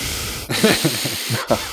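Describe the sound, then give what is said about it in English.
A person imitates the breathy, hissing breathing sounds of parakeets: a series of airy, rasping pulses with a rough rhythmic texture, moderately loud and without words. “Also, so like their breathing sounds too. Like they're always going like”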